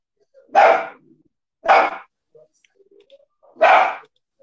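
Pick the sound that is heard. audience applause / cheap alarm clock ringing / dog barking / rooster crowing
dog barking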